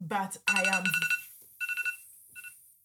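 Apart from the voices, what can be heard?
phone alarm ringing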